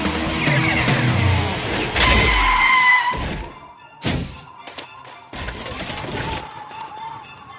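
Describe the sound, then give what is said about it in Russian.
A rescue bus rushes in and skids to a halt, with a loud whooshing burst followed by several sharp thunks and clattering impacts, all fairly loud, with no talking. “Автобус спасателей, отлично.”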